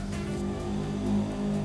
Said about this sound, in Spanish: Y con motos pedorras que no faltan.